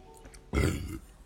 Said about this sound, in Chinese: 喂，打嗝了。